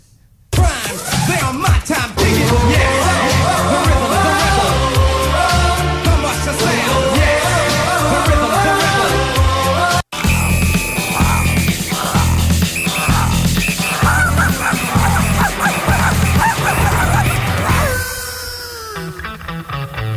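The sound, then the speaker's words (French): A full-band French-language song plays loud and continuous as a musical break, with a brief dropout about halfway through before the music resumes and thins out near the end. No one talks over it. “On va se prendre une pause musicale, OK?”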